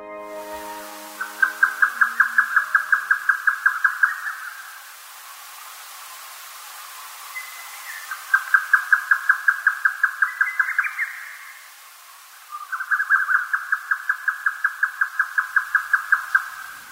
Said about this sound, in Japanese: 単調な音の繰り返しがヨタカの鳴き声です。ヨタカは鷹と名前についていますが、鷹の仲間ではなく、カワセミなどに近い鳥です。ヨタカは鳩より大きく見える鳥です。長い翼と尾の独特の体型をしています。